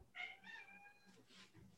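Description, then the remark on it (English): A cat meows insistently to be let out, a couple of drawn-out, wavering cries rising and falling in pitch with a slightly whiny edge, heard alone without any talking. “I gotta let my cat.”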